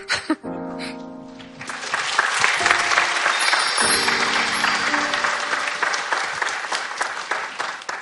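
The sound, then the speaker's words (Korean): An audience claps steadily for several seconds, a dense, loud wash of hand claps that swells after a brief start, with a few sustained musical tones sounding underneath early on. “답은 지금 이 박수가 아, 준 것 같고요.”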